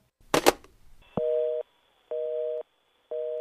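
A sharp clatter of a phone being hung up, followed by a steady-pitched telephone tone beeping in repeated on-off bursts, about half a second each with pauses between.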